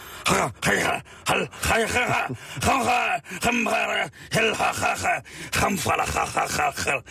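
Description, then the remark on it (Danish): A man makes a rapid run of guttural, throaty vocal sounds with rising and falling pitch, imitating how a mountain guide spoke on a hunt in Scotland, as gibberish rather than real words, loud. “Ja, øh, altså på en, på en jagt i Skotland, der, mødte, der var der en bjergguide, han snakkede simpelthen så vildt, som, det var kun sådan nogle lyd her.”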